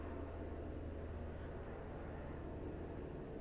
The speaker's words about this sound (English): you hear that you hear the helicopter again